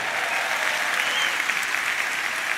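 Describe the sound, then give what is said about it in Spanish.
A church audience applauding the Lord steadily, dense clapping from many hands at a fairly loud, even level throughout, with no voices standing out. “¿Le puedes dar un aplauso al Señor por eso?”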